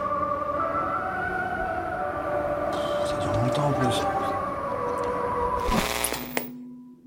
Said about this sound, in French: premier jour, en Corée du Nord, même le radio-réveil est collectif. Chaque matin à 5 h des haut-parleurs géants envoient du son bizarre sur toute la ville.